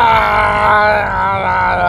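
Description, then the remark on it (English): A voice imitates vomiting into a tub with the faucet on full blast, with a loud, strained, groaning sound held for about two seconds, rough and throaty, wavering slightly in pitch, with no words spoken. “It's like I, I feel like I threw up from yesterday as how much came out.”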